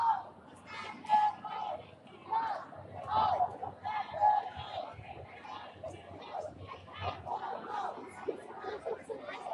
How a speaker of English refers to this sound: Um, there are thousands. I mean, I've been standing here for oh, an hour and a half, I think, and queue the march is still going on. I mean, you can still hear it.